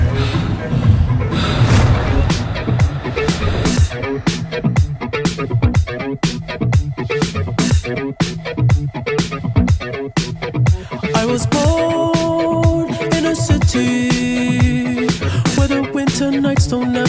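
A loud intro of an R&B song released the past week: a steady, punchy drum beat with a dense low end, joined about two-thirds through by sustained synth chords, with no singing yet.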